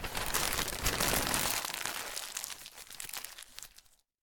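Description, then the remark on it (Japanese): A large sheet of poster paper (mozōshi), presented as a meeting document, rustles and crinkles for about four seconds, a dense crackling flurry that starts loud and gradually thins out before stopping, with no voices. “こ、これは一枚にまとめてきました確かに一枚だけどこれ模造紙だろ”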